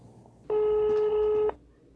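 A single ringback tone on a telephone line calling a psychological help line in Cuba: one steady, electronic buzzing tone lasting about a second, clear, over faint background noise, with no one speaking.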